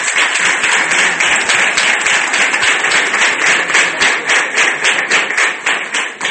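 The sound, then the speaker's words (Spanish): Steady applause from an audience for a candidate at a local election campaign event, many hands clapping densely and loudly for several seconds with no pauses, the sound staying even throughout. “Un aplauso para ella.”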